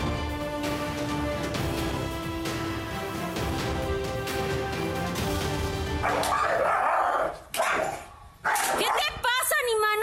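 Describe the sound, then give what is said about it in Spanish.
Steady music gives way to a dog barking sharply, then loud, high-pitched yelps that waver and rise in bursts, distressed, over the final few seconds, as the dog is beaten inside a home in the El Culhuacán housing unit in Mexico City. “grabado golpeando a un perro al interior de su vivienda en la unidad habitacional El Culhuacán, en la Ciudad de México.”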